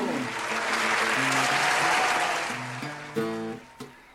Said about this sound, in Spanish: aquí ya, ya es ovación de pie, porque el solo hecho de haber terminado la canción ya lo tiene en la lona pidiendo.